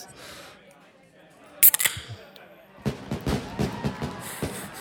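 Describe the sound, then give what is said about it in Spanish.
A sharp metallic snap as the cap pops off a bottle of Incarnation IPA beer with 7 percent alcohol, followed by a fizzing, rustling burst and clattering handling sounds, with people talking softly around it. “Pero pues vamos a probarla. Sí, sabemos que extrañas tu coronita. Con todo mi corazón. Bueno, ahí va, la voy a abrir.”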